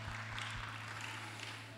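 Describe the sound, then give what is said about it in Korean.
An audience at an early-morning church worship service applauds together, clapping in glory to God and in welcome to one another, a steady wash of many hands clapping at an even level for the whole moment, with a low electrical hum underneath and no voices. “우리 하나님께 영광의 박수를 서로에게 환영의 박수를 우리 하며 축복하겠습니다.”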